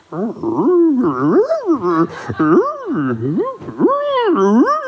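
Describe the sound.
Someone imitates the cooing of pigeons at rest with a loud voice: a continuous run of warbling coos that swoop up and down in pitch, repeated several times without pause.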